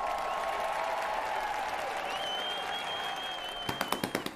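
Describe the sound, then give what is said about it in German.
An audience applauds steadily, a dense wash of clapping that runs throughout, with a few sharper, louder individual claps standing out toward the end. “Und ich würde ganz kurz, ich will ganz kurz einen Applaus für uns haben.”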